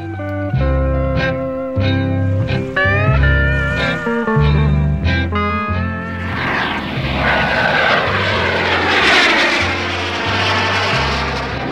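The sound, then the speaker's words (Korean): Loud, steady airplane engine drone with a pulsing low rumble and layered tonal whine, building into a broad roaring hiss partway through, as if a plane is powering up, on a flight to Southeast Asia. No one speaks. “우리는 이미 이미그레이션을 통과하고 연세점을 들러 팩을 몇 장 사고 비행기에 탑승했어요.”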